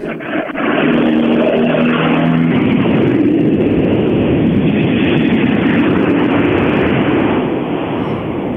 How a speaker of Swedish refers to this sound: Lät som en hel karavan bilar rullade förbi, stämde det? Nej, det var faktiskt bara en eskort som, som eh, åkade förbi.